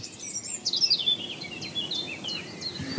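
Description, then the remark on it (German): A European robin sings a thin, high, trickling phrase of quick pearly notes and short downward slides, fairly close but soft, over low outdoor background rumble with no voices. “Jetzt haben wir übrigens ganz nah, singt hier das, das Rotkehlchen. Das hat eben so ein bisschen perlenden Gesang.”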